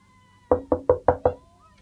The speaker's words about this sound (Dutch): Hij klopte dus aan, maar hij stond klaar om meteen de benen te nemen als het nodig mocht zijn.